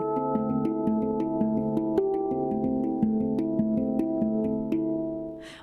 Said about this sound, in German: Damit die Handpan auch organisch klingt